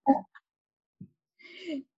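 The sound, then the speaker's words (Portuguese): Pet dogs making noise: a sharp bark-like burst, a couple of small yips, then a drawn-out whining cry, moderately loud, with no one talking. “Continuando pelo meu contratempo dos meus cachorros.”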